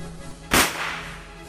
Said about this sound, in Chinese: 砰！起跑的枪声一响，这些与众不同的选手纷纷向前冲刺，观众们喧闹着。